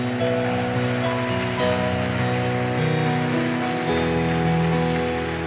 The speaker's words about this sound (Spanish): ¿Cuántos se gozan en Cristo? ¿Cuántos se gozan en su presencia? y nuevamente un fuerte aplauso.